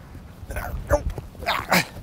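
A dog at a dog park lets out a few short, sharp barks and yips in quick succession, with a faint background murmur in between.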